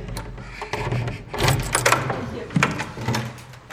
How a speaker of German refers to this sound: Ich mach mal die Tür auf.